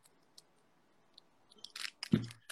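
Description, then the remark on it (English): A new bottle cap's seal cracking open: a few faint ticks, then a quick run of sharp crackling snaps ending in a louder, dull twist-and-pop. No one speaks. “I gotta crack it open.”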